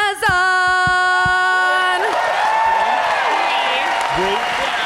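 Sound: audience applause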